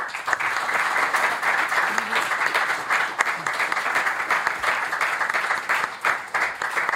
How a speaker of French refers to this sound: On va continuer nos échanges avec un troisième invité qui vient de nous rejoindre, qui a quitté Dardar, une euh, conférence à laquelle il participait. Je vous demande un tonnerre d'applaudissements pour Karim Katan.